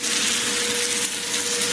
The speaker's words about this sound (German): dass sie ihre Nahrungssuche unterbrechen, wenn Motorengeräusche beispielsweise von einer Schnellfähre zu laut werden. Sie tauchen dann tiefer, flüchten vor dem Krach, tauchen noch tiefer